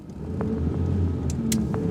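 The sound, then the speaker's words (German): A car engine rumbles steadily as the vehicle pulls away, with a low, even drone and a few brief higher-pitched rattles and squeaks over it. No one speaks. “Da, er kommt wieder aus dem Waschsalon. Und hat ein Auto.”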